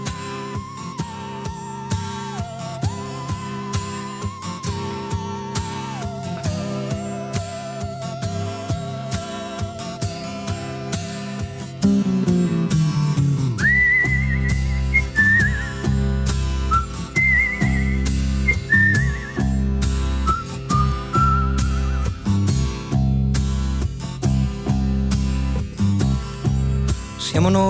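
An Italian pop song from 1977 plays, opening with a whistled melody over light accompaniment before a fuller band with heavy bass and drums comes in loudly halfway through, the whistled tune continuing on top.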